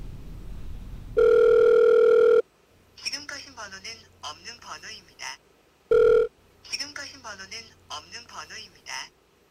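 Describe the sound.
A telephone ringback tone sounds in two steady buzzing bursts, a long one then a short one, with people talking in between, during a phone call to a former coworker.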